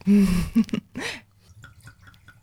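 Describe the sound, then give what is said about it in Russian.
A short burst of laughter and breathy vocal sounds, then non-alcoholic wine poured from a bottle: faint glugging and trickling that fades into a quiet dribble. “передаю тебе бутылочку. Слово, бутылочку. Наливай.”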